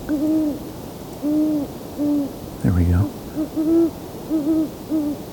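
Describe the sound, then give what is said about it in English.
Owls, both male and female, hoot repeatedly in a steady rhythmic series, several calls overlapping as if two birds trade hoots, with a brief voice speaking softly in the middle. “I'm going to turn back towards the owls for a bit.”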